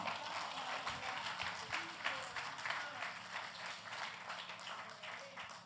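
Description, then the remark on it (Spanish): An audience claps steadily in strong applause to God, a dense wash of many hands filling the whole clip at an even, sustained loudness with no break. “Fuerte el aplauso al que vive y reina.”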